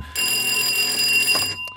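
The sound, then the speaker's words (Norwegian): A fire alarm goes off in a studio, blaring loudly and continuously, a harsh, steady high-pitched electronic tone that starts abruptly and holds for over a second before cutting off. “Der går brannalarmen. Vi må dessverre forlate studio.”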